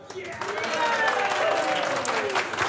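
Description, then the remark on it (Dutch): A live audience at a real estate financing conference at the Novotel in Amsterdam applauds steadily, dense overlapping claps for the whole stretch, with faint voices and a few whoops mixed in. “Wij staan deze keer op de dag van de vastgoedfinanciering van Vastgoedjournaal in het Novotel in Amsterdam met publiek”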